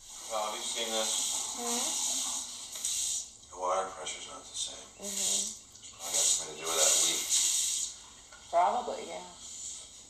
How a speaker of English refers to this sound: finishes up and is at the sink testing the water pressure